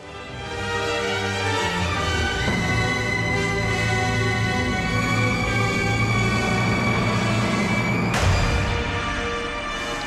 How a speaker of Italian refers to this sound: Quel colpo di martello è il colpo del destino. è una lotta titanica quella di Gustav Mahler, lo si capisce e proseguirà per, per, molti minuti.